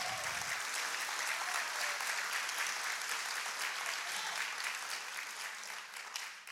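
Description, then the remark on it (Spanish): An audience applauds the Lord steadily, a dense wash of many hands clapping at once, loud and sustained throughout before easing slightly near the end. “Dele fuerte aplauso al Señor.”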